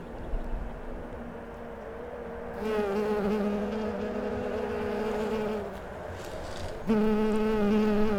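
A bumblebee buzzes with a low, steady droning hum full of harmonics. It starts after a quiet moment, softens briefly, then returns louder. No one speaks.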